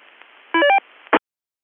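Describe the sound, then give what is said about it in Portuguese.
Over a low hiss of radio static, a short cluster of steady beeping electronic radio interference tones sounds for about a quarter second, followed by a brief crackle of noise before the line goes dead silent. “A interferência é aqui, tá chegando em casa.”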